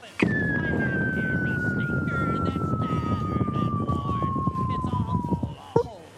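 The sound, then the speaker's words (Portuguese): A voice imitates the noise a trash bin's sensor emits when someone throws trash in, simulating trash falling down a very deep well: one long whistle slides steadily downward for about five seconds, then a short, abrupt burst marks the landing, over a busy background. “É, tipo, simulando assim um, um, poço muito fundo, né?”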